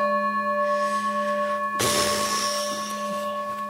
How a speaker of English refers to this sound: Not bad, but I have had much better bell. I mean, really, at Gaia House, you know, I mean, is this the only bell they can get?